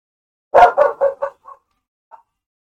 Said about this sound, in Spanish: Ah, qué perro, güey. O sea, te amo. Pero a veces hace mucho ruido.